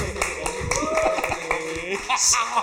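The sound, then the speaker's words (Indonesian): Scattered audience clapping, a quick run of sharp, irregular claps, mixed with murmuring voices and laughter-like chatter throughout. “Akhirnya dipotong dulu, jangan tepuk tangan dulu.”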